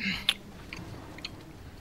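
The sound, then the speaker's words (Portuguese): Someone bites into a brioche with a crisp snap, then chews slowly with a few soft, wet crunches over a low background murmur. “O guarda pega o brioche, dá uma mordida.”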